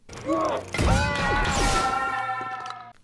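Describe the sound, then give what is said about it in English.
The droid Chopper, knocked off by a stormtrooper, cries out with a quick warbling electronic chirp as it falls, then a clattering metallic crash, followed by a long, sustained electronic wail that slowly trails off. No one speaks. “You hear him go, "Ooh!" Please put the sound effect in.”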